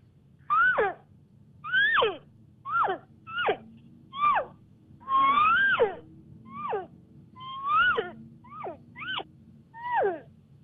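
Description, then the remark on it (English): A game call blown to imitate a cow mew: about a dozen short, nasal, downward-sliding mews repeated in a steady rhythm, with tongue pressure varied to make higher and lower notes, loud, with no talking. “So uh, just a, a, basic mew, a cow mew, is is something like this.”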